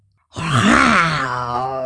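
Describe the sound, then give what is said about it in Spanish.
A voice imitates a bear's ferocious growl: one loud, rough, drawn-out roar starting after a brief silence, low and gravelly, holding steady for over a second before easing slightly. “Pero justo cuando mamá zarigüeya iba a gruñir, un verdadero viejo oso gruñón salió del bosque y dio un gruñido feroz, el más feroz que Pepe jamás había escuchado.”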